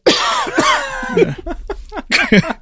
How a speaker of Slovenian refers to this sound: Zdaj lahko kašljam.